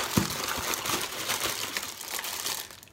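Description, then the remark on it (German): Continuous crinkling of plastic packaging as an ordered package for a desk is unwrapped, revealing a Baby Groot pen holder, with irregular rustles and crackles over about three seconds and no talking. “Ich habe etwas bestellt. Und zwar für meinen Schreibtisch, um, eine, um eine, etwas, eine kleine Auflockerung hier zu haben.”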